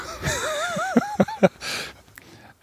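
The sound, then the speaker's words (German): Plastic cups knock together in a toast three times in quick succession, short dull taps, amid wavering giggly vocal sounds and a brief breathy noise afterward. “Wir können ja auch mal den Sound, wenn man die aneinander stößt, gerade ja. mitnehmen.”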